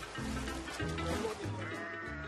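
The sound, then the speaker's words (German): Sheep bleat loudly, four overlapping calls in quick succession, each a wavering, nasal cry, as they are washed in the Atlantic Ocean at a beach in Senegal, set against a constant rushing background noise. “Ich frage mich, warum waschen die Senegalesen ihre Schafe im Meer?”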